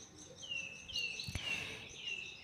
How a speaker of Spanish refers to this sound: Escuchando los pajaritos, me voy a imaginar que estoy teletransportada, teletransportado a un bosque verde lleno de pájaros, lleno de árboles, con un cielo despejado en una parte y en otro veo que viene una tormenta.